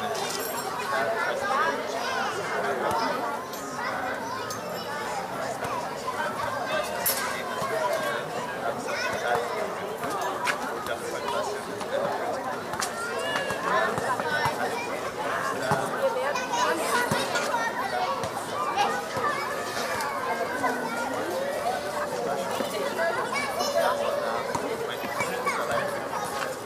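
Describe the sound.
Steady street ambience on a summer evening in Berlin, full of overlapping chatter, with many voices blending into a continuous murmur, occasional children's voices and brief louder exclamations rising above the crowd.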